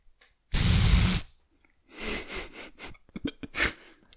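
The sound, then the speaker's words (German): A deodorant spray can, sprayed past a microphone, gives one loud, steady hissing burst of under a second, followed by softer scattered rustles and breathy, sniff-like noises. No one speaks. “Hast du Deo in dein Mikrofon gesprüht? Also daran vorbei, ja. Das war ein Deo-Sprayer.”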